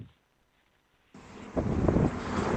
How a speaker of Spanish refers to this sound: Hoy mi detalle es desde, desde la calle, desde el día a día, con el ruido de la gente pasando, el autobús, los demás coches, y ahí, entre el ruido, está el Señor.